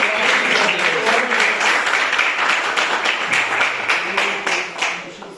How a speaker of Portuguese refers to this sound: Eu agradeço a oportunidade e as palmas que louvam o Senhor.